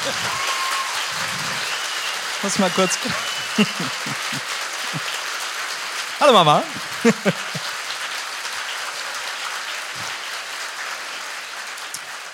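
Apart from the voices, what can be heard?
audience applause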